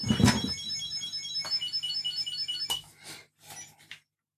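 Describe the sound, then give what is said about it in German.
A Find My tracker's electronic alert tone rings out in a repeating, phone-like melody of high beeps, with a few soft handling knocks and thumps, then cuts off shortly before the end. “Definitiv wie so ein nerviges Handy.”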